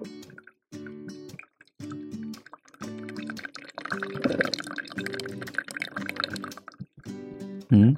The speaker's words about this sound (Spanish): Mientras el cafecito se, se empieza a preparar, ahí para que lo escuchen.